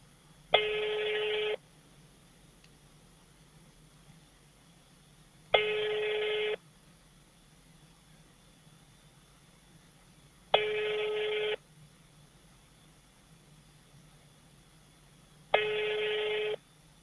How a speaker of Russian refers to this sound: Все, номер не отвечает.